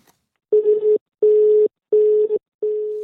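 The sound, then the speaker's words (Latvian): A telephone line tone sounds alone as four steady, evenly spaced beeps, each roughly half a second long with short gaps between them, as a journalist's call to politician Andrejs Elksniņš goes unanswered. The tone is clear, with no voices. “Tomēr norunātajā laikā viņš uz manu zvanu vairs neatbildēja.”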